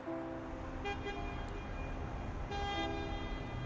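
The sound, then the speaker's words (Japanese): A car horn sounds somewhere, a sustained tonal blare with brief swells, over a constant low rumble of background noise. No one speaks. “どこかでクラクションが鳴った”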